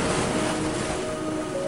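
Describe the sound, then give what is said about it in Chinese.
Ocean waves churn in a loud, continuous roar of rushing water, broad and steady with no distinct breaks, and a faint low hum running underneath. No one speaks. “小男孩和所有的乘客们都安全到达了岸边，却有数不清的罗汉被海浪卷走了。”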